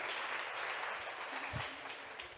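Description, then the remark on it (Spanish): Steady applause from a crowd, a dense wash of many hands clapping at once, sustained evenly throughout with no voices standing out. “Un aplauso para Alex, por favor.”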